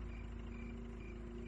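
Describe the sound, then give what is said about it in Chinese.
A car engine hums low and steady, a faint continuous rumble with a droning tone and no changes in pitch, no revving and no voices, from a car moving with all its lights switched off along a pitch-dark road at night. “可没过多久，他好像又听到了一阵汽车引擎的声音，鬼鬼祟祟的。”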